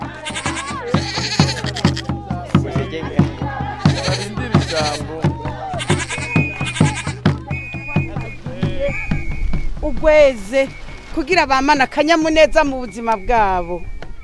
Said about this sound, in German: Wir stehen am Rande eines Eukalyptuswaldes auf einem Fußballfeld, zwei Tore ohne Netz, struppige Grashalme, im Lehmboden stecken kleine Holzpfähle, an denen je eine Ziege angebunden ist.